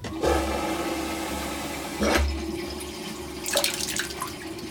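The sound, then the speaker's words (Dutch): The pressure drainage well pump of a water infiltration system on a field plot in Zegveld kicks in with a low, steady motorized hum beneath a continuous rush of water going into the well and on to the drains, punctuated by a few brief surges and splashes; no one speaks. “Kijk nou hoor je de put net aanslaan dit is de put eh, eh, waar, waar, het water in gaat.”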